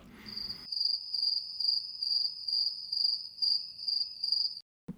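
A cricket chirps in a steady pulsing rhythm, about nine shrill, high trills in quick succession, clear against an otherwise quiet background with no talking.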